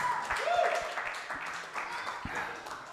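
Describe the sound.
An audience applauds with steady, dense clapping for about three seconds, and a brief rising whoop or voice cuts through early on.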